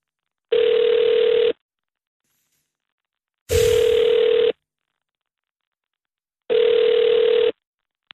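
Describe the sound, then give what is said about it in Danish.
A foreign telephone ringing tone heard when calling someone who is abroad: three long, steady one-second beeps separated by two-second silences, loud and clear with no talking. “Hvad er det for en ringtone?”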